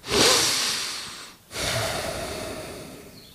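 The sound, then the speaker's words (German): A voice imitates a man snorting deeply while looking over cover pictures: a long, noisy rush of air that fades, a brief pause, then a second drawn-out breathy exhale, fairly loud with no words. “Dann guckte er sich die Titelbilder, die ich gemacht hatte, so an und schnaufte ganz tief und sagte,”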